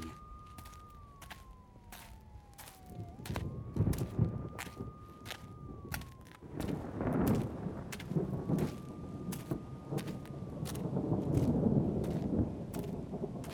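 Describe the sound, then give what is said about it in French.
Deep thunder rolls and swells several times amid steady rain crackle during a storm with lightning, with a faint wavering siren-like tone drifting above the storm. No one speaks. “Regarde le ciel, les éclairs, écoute le tonnerre.”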